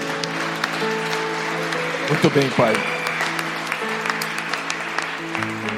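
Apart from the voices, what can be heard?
audience applause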